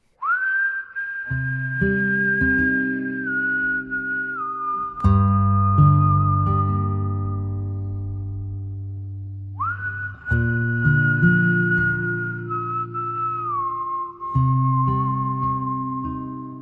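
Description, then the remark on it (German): A whistled melody of long, sustained notes from a video game soundtrack carries over warm, held instrumental chords, swelling and shifting in slow phrases. Loud and continuous, with no voices. “Richtig guter Soundtrack.”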